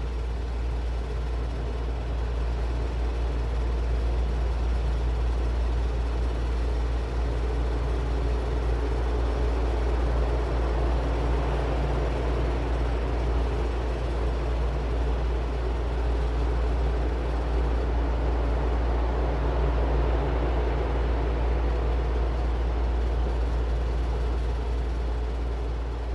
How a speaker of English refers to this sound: Take a few breaths and turn your attention to the sound of the white noise and the fans moving in the background.